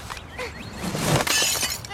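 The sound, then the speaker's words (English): In a Progressive insurance ad, a window pane is broken by a poorly thrown rolled-up newspaper on an early morning paper route: one sharp, loud crash, followed by a bright spray of tinkling, scattering glass fragments that lasts about a second before trailing off. “Hey, my window!”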